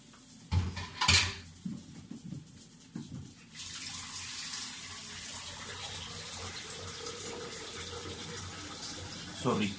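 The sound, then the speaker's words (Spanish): A few clinks of dishes and utensils, then a steady stream of water pours continuously into a blender, fairly loud, running until the end. “por la licuadora, estoy echándole el agua.”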